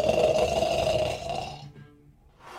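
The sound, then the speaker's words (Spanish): A single loud, rasping snore, a rough rattling exhale lasting over a second, then a brief quiet pause before a soft breath begins again. “Tal vez está dormido.”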